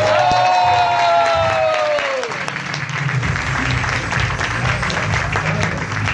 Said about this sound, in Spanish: póngase de pie por favor y con un fuerte aplauso, aplauso recibamos a nuestro gran diamante